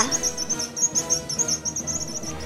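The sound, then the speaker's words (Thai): Two birds call out in quick, high-pitched chirping bursts throughout, a busy twittering that repeats steadily over a softer, lower background hum. “แล้วสัตว์ทั้งหลาย ก็พากันไปหาช้างเกเร ซึ่งนกทั้งสองร้องบอกมันว่า”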